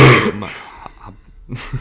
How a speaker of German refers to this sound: ja, ich musste kurz husten. Kein Thema.